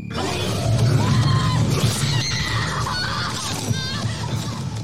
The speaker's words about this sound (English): But most of all, screams.